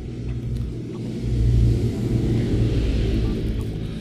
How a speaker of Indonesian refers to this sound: Banyak motor lewat ya karena ini diambilnya siang hari buat testing.